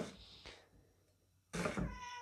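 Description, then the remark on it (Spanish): A cat meows a few times in the background, short cries near the start followed by a louder, drawn-out meow near the end, with no talking over it. “Pero bueno, pasando de tema, hablando de mascotas, ¿ustedes escuchan a mi gato de fondo?”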